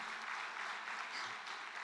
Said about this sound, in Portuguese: Vamos aplaudir a Deus.